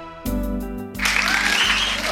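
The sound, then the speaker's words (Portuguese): A short burst of music gives way to a dense wash of clapping from a crowd at the start of the Rádio Globo program Felicidade Ilimitada, loud and continuous to the end, with a thin whistle-like tone rising over it. “Olha só, com aplauso no começo, que chique hoje, hein?”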